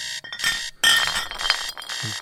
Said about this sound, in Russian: Господи, кто придумал такой звук на будильник?